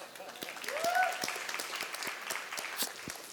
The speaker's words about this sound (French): Est-ce qu'on peut applaudir ma formidable épouse?